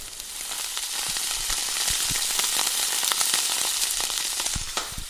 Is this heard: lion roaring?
no